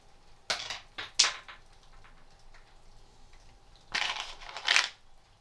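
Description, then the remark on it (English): A hazelnut dropped onto a wooden chopping board: crisp, bright knocks, three quick ones and then after a pause two more, with no voices. “hazelnut, wooden chopping board.”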